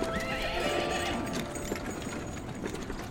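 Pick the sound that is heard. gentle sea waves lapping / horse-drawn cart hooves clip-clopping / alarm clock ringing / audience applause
horse-drawn cart hooves clip-clopping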